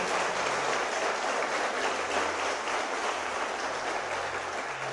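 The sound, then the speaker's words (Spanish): An audience at a MCI de Ubaté church service claps loudly and steadily for the Lord at the preacher's call, a dense wash of many hands that stays at full strength for the whole stretch without pause. “Denle el aplauso fuerte al Señor.”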